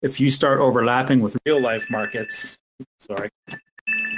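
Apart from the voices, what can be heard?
phone ringing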